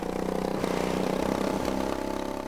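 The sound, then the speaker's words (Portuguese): A small gasoline pony starter engine on a rare John Deere R tractor, built between 1949 and 1954 with a diesel main engine, runs steadily, a loud, fast, even chugging with a buzzy mechanical tone and no voices. “Com um motor a diesel, mas com um motor de arranque pony, a gasolina, que é este que estamos a ouvir”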